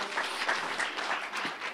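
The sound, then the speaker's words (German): A brief burst of applause from a small group, dense overlapping claps filling the moment at steady loudness, with no one speaking. “Uh, kleiner Applaus hier.”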